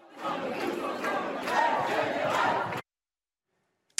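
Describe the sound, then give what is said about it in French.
A loud crowd of protesters in the Les Halles shopping centre in Paris chants slogans together, such as '49.3, ça ne passera pas, la retraite à 60 ans'. A dense roar of shouting voices swells for nearly three seconds, then cuts abruptly to silence with a brief click at the end. “de nombreux manifestants ont envahi le centre commercial des Halles avant de déambuler dans la galerie commerciale, puis dans les couloirs du métro et du RER, e scandant 49.3, ça ne passera pas, la retraite à 60 ans.”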